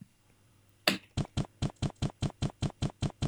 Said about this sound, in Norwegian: Ja, det var fotskritt generelt oh, ja, faen, da. Ja, ja, ja, det er vanskelig å huske. Men, eh, men de fotspissene er kanskje av det lyddesignet er kanskje det som er billigst, for de er helt like hver gang.